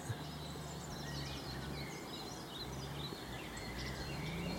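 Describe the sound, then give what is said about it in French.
Eurasian blackbird contact calls, a few short, scattered chirps, sounding over a steady low mechanical drone and other faint birdsong. “On entend quelques cris de contact de merle aussi.”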